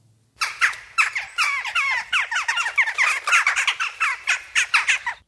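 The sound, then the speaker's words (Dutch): A chattering flock of jackdaws gives short, sharp 'kja' calls in rapid, overlapping bursts, loud, with no pauses and no speech. “de meest bekende klank is toch wel de korte roep die klinkt als ‘kja’”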